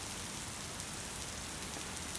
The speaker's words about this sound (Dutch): En het stroomt nog steeds naar je hoofd, van je hoofd naar je nek, naar beneden blijft lekker regenen.